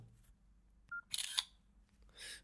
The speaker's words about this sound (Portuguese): Isto tem flash, é uma câmera de 2 megapixels. E vou só tirar uma foto para ouvirem o som.